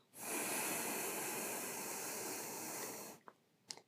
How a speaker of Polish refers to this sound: więc powiedzmy na sam początek 4 sekundy wdechu, 4 sekundy zatrzymania, 4 sekundy wydechu przez nos